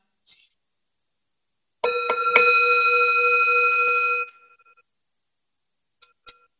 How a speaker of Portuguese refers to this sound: Pessoal, todo mundo se prepara pra meditação. Eu queria, é, vou aproveitar o sino aqui. Então, sino eu, eu vou usar como um sinal para a gente começar e terminar.